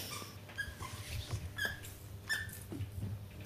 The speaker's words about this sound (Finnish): Se tykkää näistä vinkuleluista, se rakastaa tätä vinguttamista, mikä on joskus vähän ärsyttävää.